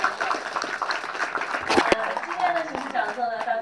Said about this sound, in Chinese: 然后，请大家再以热烈的掌声感谢陈教授今天带给我们的学术测验。谢谢。